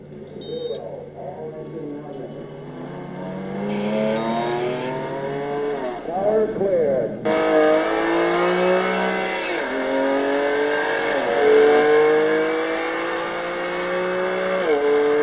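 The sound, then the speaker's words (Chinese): A BMW car engine, from BMW's official promotional video, revs hard and accelerates, its pitch climbing in repeated sweeps that drop back at each gear change, loud and sustained throughout. “这个是什么呢？宝马的官方宣传片儿，我特意搁 YouTube 上下载的，光宝马的官网上。”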